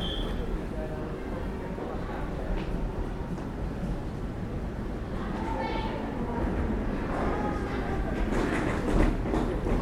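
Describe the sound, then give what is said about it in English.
A train at a station platform: a steady, loud rumble and hiss of rolling carriages, with brief higher squeals and scrapes rising midway, and indistinct voices murmuring underneath. “Please mind the gap between the train and the platform edge.”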